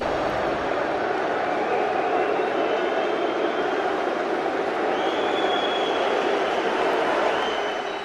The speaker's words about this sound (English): That is Chelsea fans booing at the European Champions League final. And why are they booing? They were booing because uh, players were taking the knee back, Black Lives Matter, and so on.